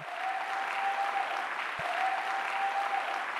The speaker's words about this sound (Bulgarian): О, ако вярваш в това, защо не му дадеш едно дарение на ръкопляскане?